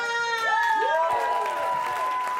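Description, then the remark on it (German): An audience at a burlesque show in Munich cheers and applauds steadily as a performer dressed as a cowgirl comes on stage, with sliding whoops and whistle-like calls rising over a continuous bed of clapping, fairly loud throughout. “Bitte einen tosenden Applaus”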